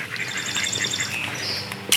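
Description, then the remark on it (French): A dense chorus of many birds, which return every year, calling at once, overlapping chirps and whistles filling the air continuously and fairly loudly, with a brief louder burst of noise at the very end. “Puis tu vois, les, oiseaux, le bruit, moi, ça me fait du bien.”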